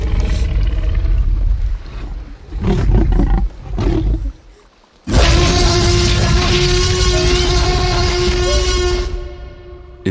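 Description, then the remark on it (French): A monstrous creature roar built from elephant trumpeting for a film scene of a T-Rex attacking a car: deep rumbling growls, a brief pause, then a sudden loud, shrill, sustained trumpet-like bellow that fades at the end. No one speaks. “Le barrissement d'un éléphanto pour la scène du T-Rex qui attaque la voiture.”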